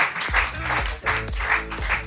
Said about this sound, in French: Ouais, 12, 16 ou 18 c'est une bonne réponse. On peut les applaudir.